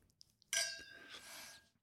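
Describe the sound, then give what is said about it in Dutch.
Wine glasses of an everyday wine clink together once in a bright, ringing toast, the chime lingering and fading over about a second with a soft clatter after. “Proost.”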